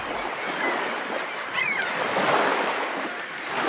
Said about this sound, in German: Du bist am Strand. Die Wellen schwappen mit großer Kraft gegen den Strand. Hörst du sie?